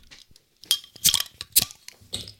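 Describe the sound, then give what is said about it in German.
A bottle of Guinness Hop House 13 Lager being opened with a borrowed tool: a few short, bright glassy clinks and metallic clicks in quick succession, with no one speaking. “Ähm, ja, dann öffnen wir es doch mal.”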